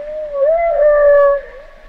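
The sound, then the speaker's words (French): A long, sustained humpback whale call with a rising-and-falling moaning tone, rich in harmonics, heard alone and fairly loud for nearly two seconds before fading. “Alors ce qui est intéressant, c'est que nous, par exemple, quand on fait des expérimentations avec du playback, c'est-à-dire qu'en fait on diffuse euh, des chants de baleines euh, à des femelles ou des sons de femelles euh, à des mâles.”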